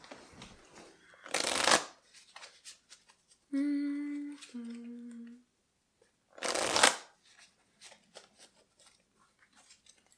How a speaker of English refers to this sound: Shuffling these cards back in and drawing one last card.